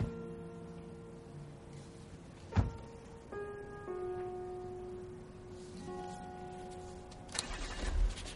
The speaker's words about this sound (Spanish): El coche se aleja.